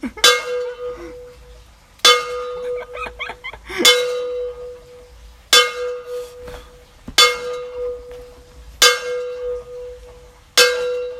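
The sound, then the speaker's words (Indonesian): A kentongan slit drum struck seven times in a steady, unhurried rhythm, each loud hollow knock ringing out with a clear pitched tone before the next hit. “Oke oke oke oke itu suara revolusi revolusi mental jadi sorry teman-teman podcast yang tadi dengerin suara apa namanya kentungan atau apa tuh namanya ya semacam kentungan lah”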